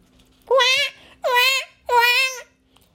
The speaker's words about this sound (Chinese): 事情发生在那天晚上，污垢做成的婴儿突然放声大哭了起来。